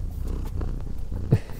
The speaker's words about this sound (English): Do you want to say hi? Say hi. Listen to those purrs.